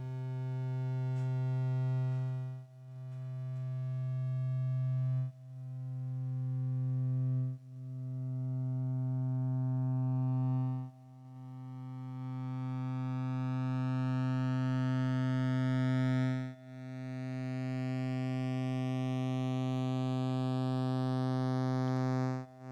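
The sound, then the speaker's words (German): A self-modulating modular synthesizer sequence repeats a sustained drone in long notes of uneven length, with attack and decay randomly varied so each note swells in slightly differently, while upper harmonics shift and sweep, creating an evolving electronic tone with no voices. “beeinflusst sich einfach selbst.”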